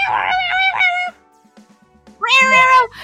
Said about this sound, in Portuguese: O Thomas, ele é super. Ele é super, super, super, super extravagante, né? Ele não, não consegue miar de boa.